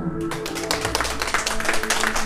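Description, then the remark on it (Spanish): A short burst of applause from a small group, who applaud themselves at the speaker's request, dense irregular clapping that starts abruptly and continues steadily for a couple of seconds with no one speaking. “Regálense un aplauso.”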